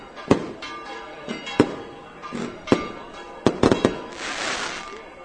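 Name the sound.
fireworks exploding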